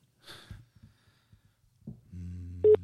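A few breathy snorts and soft clicks, then a steady telephone ringing tone starts up and holds, moderately loud, with a short sharper blip near the end, as a call is placed to see if someone answers.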